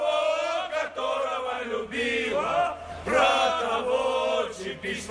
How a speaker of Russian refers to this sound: когда пели болельщики эту песню, в одном конце у трибун на входе присоединились другие болельщики.